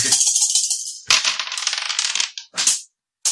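Five dice clatter and tumble across a hard table in quick bursts, a long rattling roll followed by a shorter bounce, fairly loud with no voices.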